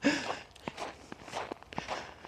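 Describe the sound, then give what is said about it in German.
Footsteps of shoes crunching on grippy snow on a forest path at a steady walking pace, about five or six gritty crunches in a row with no voices. “Und ich finde, es ist ein lässiges Geräusch, so Schnee unter den Schuhen.”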